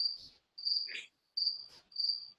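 Crickets chirp in steady high-pitched trills, four bursts separated by brief pauses, with a softer rustling sound mixed in. No one speaks.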